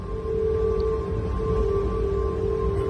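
A steady, eerie tonal hum drones without a break over a low, rushing wind rumble as wind sings through the high cables of the Golden Gate Bridge in San Francisco, loud and sustained.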